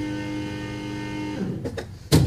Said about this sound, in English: That was something in the uh, the air conditioner. Sorry about that, folks. I, I think I know what it is, but um, uh, it's the thing that drains the water out because we don't have a drip drain out of here. There must be something wrong with it.